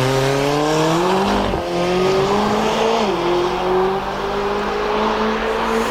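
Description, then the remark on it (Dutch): A McLaren race car engine revs loudly and continuously, its pitch climbing in steps as it shifts gears, with a brief dip around the middle before rising again; McLaren sports and Formula 1 cars are on show at the Lauwman Museum in Den Haag. “En de sportwagens en de Formule 1-auto's van McLaren... zijn nog tot 27 augustus te zien in het Lauwman Museum in Den Haag.”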